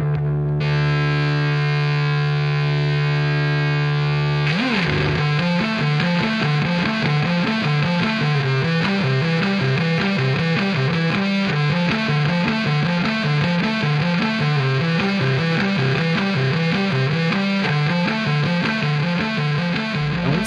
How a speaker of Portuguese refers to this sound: solo de baixo inacreditável. Não parece nem que é um baixo.